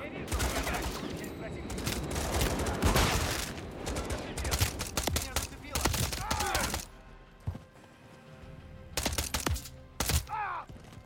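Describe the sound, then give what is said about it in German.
Rapid bursts of video game gunfire crackle loudly, dense volleys in the first half, then scattered sharp shots after a brief lull, with faint voices between. “Vorsicht beim Feuer.”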